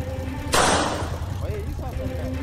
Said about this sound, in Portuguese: E depois do segundo estrondo, a moto acelera e o ruído some lentamente. O homem foi embora.